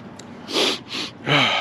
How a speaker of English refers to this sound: Excuse me, have to keep clearing my throat.